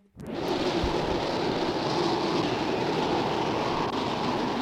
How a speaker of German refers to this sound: Vielleicht ist die Quali auch nicht so gut, aber das ist ein Hurricane.